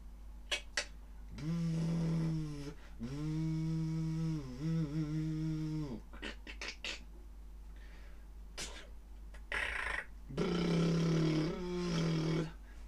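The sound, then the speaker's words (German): A voice imitates a sewing machine with a loud, buzzing hum in three sustained bursts that waver in pitch, separated by short clicks and breathy noises. “Naja gut, schlechte, schlechtes Geräusch.”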